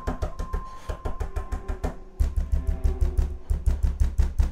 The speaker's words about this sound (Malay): Terbunyi ketukan tambah kuat, tambah kuat dan tambah kuat pintu saya diketuk